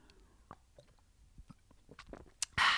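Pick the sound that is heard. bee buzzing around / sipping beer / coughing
sipping beer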